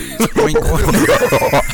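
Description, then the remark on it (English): A person imitates an excited pig nipping like a playful dog, a loud run of snorting grunts and rising squeals over about two seconds, with no actual words spoken. “What did, what did the pig sound like when he did that”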